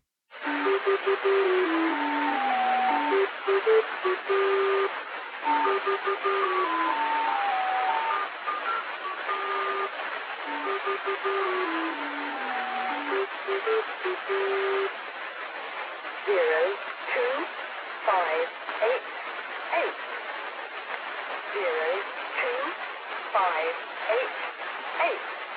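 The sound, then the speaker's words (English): A shortwave numbers station broadcast: a thin, tinny chime melody plays and repeats through a band of static, then gives way to a flat, clipped voice reading out five numbers, all heard over a narrow, crackly radio signal. “as you can hear, it plays like a little ditty and then repeats then the five numbers.”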